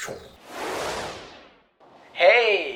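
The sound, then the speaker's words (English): A single ocean wave crashes on a beach on a cold day in January, surging in with a rushing, hissing swell that fades back out, and then someone starts talking. “Do you hear the waves crashing?”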